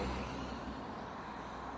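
A steady roar of road traffic fills the air, a broad, constant rumble of cars going by, with no voices and no clear individual pass-bys standing out.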